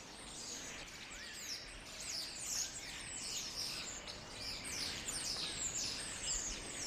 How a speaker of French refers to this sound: Mais le problème quand même, c'est le caractère répétitif du bruit des perruches. Voilà. Mais ce que je comprends tout à fait, c'est vrai que ça peut devenir insupportable.